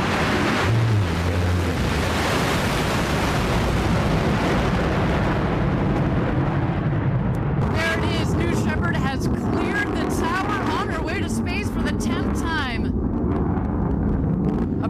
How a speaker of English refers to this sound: approaching max Q, maximum dynamic pressure on the rocket. Max Q confirmed she continues to punch her way to space. A beautiful burn on that BE-3 engine.